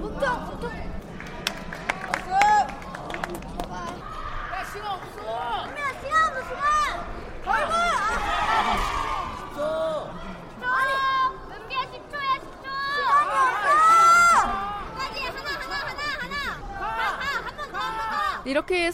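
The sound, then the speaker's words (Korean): Coaches and teammates shout energetic encouragement to athletes at a taekwondo competition, overlapping high-pitched calls rising and falling above a steady crowd murmur, with brief bursts of laughter and scattered claps. “선수들을 응원하는 코치며 동료들의 힘찬 목소리는 물론이고 때로는 아쉬워하는 목소리도 들을 수가 있습니다.”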